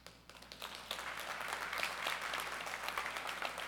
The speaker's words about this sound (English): Now, I want to explain their clapping for a second because I want to be clear. That's to say we love you and we're proud of you, but I want you to know we're really proud of God and His work in your life.